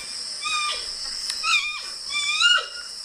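A young bear gives a series of squeaky, high-pitched whining calls, three or four rising squeals in quick succession, clear with no talking.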